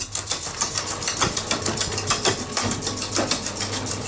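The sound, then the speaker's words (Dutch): A cement mixer churns mortar with a steady low motor hum and a continuous gritty rattle of scraping, clattering pulses, fairly loud and even throughout, with no one talking. “Nou, en nou ga ik even de mixer aanzetten.”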